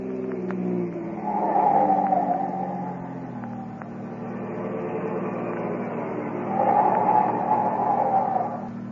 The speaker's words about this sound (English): But close behind him speeds another car, a police car